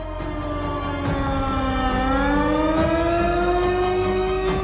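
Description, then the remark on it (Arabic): A loud, steady alarm siren wails continuously, its tone slowly dipping then gradually rising in pitch, with a low rumbling background underneath and no voices. The siren sounds after occupation forces entered Jenin camp and Nur Shams camp in Tulkarm, in the northern West Bank. “هذا الصوت ينطلق عقب دخول قوات الاحتلال إلى مخيم جنين ومخيم نور شمس في طول كرم”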